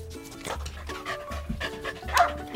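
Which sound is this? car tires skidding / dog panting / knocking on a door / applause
dog panting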